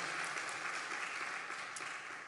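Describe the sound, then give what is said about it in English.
An audience breaks into a round of applause, a dense, steady wash of many hands clapping at once, fairly loud and sustained with no voices rising above it. “So, sorry, well, give them a round of applause for being environmentally friendly and conscious.”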